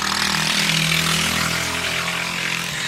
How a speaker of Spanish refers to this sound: Moto.